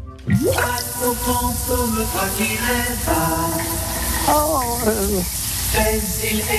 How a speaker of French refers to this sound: Un chanteur français qui chante sous sa douche.